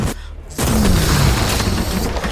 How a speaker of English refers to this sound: there is a sound of thunder and a wave of energy accompanied by pieces of silver and gold shrapnel that obliterates that table and rips into the partygoers and those behind the table.